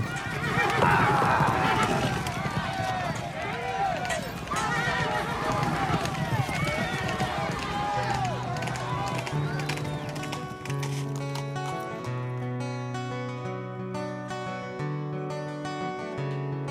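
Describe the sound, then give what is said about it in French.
Several horses whinny and neigh over a busy clatter of hooves in a show with armour and horses for the first half, before a melodic instrumental tune rises and takes over. “Et euh, ben, on va les écouter tout de suite sur Mélimelzik Radio avec euh, des armures et des chevaux.”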